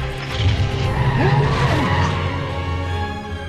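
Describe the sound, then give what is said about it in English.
A car skids with tires squealing in sweeping, pitch-bending screeches over a steady engine rumble, loud for a few seconds. “he can drive a car. Not that well.”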